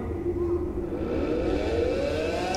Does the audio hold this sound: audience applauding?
no